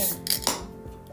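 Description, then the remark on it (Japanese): A few short metallic clinks and taps of an aluminium can of chuhai being picked up and handled before being opened, two sharper knocks standing out before a quieter tail of faint rustling. “ということで、えー、と今手元にあの缶チューハイがあるので”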